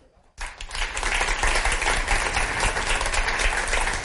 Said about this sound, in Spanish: Estos chicos que no les conocía, pero creo que son el futuro. Y un aplauso para ellos.